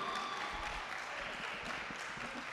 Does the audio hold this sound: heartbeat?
no